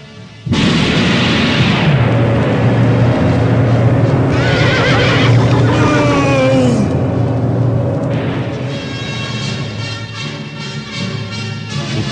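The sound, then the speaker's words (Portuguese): During a storm at Jerusalem, lightning strikes the bush a mule is tied to: the mule lets out a loud, strained whinny with wavering pitch, rising and falling, set against a sudden booming crash and a sustained rumbling roar that gradually settles; no one speaks. “No auge da tempestade, um raio veloz e implacável atinge o arbusto onde ele havia aprendido sua mula, que recebe imediatamente um choque violento, uma descarga tão poderosa quanto a ira da natureza.”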